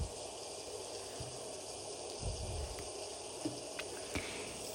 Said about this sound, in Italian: Sincronizzati sul suono della pioggia, ascoltala, sincronizza il tuo respiro con la pioggia, con le gocce d'acqua che vanno a ripulire l'energia.